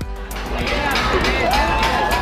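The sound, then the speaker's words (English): Steady, loud crowd noise from a street protest in Hong Kong, where the crowd is trying to disable a newly installed security camera: a dense wash of many overlapping voices with occasional sharper shouts or bangs cutting through, continuous for the whole stretch. “This crowd is trying to disable one of the new security cameras that been put up here as kind of an experimental operation to start increasing surveillance in this part of Hong Kong.”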